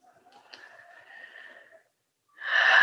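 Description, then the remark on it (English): A long, slow, airy exhale fades into a short pause, then a loud breath rushes in sharply. Deep, easy, natural breathing while pressing points around the eyes and face, with no talking. “keep breathing just deep easy breaths natural breaths”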